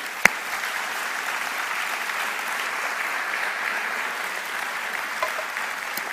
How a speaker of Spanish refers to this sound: Si vos crees que es así, ¿por qué no le das un fuerte aplauso a Jesús?